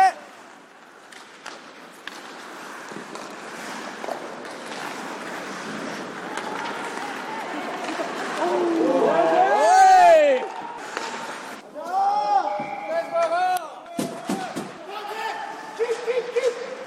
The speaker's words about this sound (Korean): 아이스하키 경기가 한창 진행 중인 빙상장에서 선수 가족과 동호인들의 이야기를 들어봤습니다.